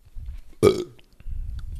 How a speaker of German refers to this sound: Mahlzeit. Das darf man in dem Podcast, glaube ich, habe ich gehört, ne? Ja, ja, der Röpse, Furze, ähm, Schurze.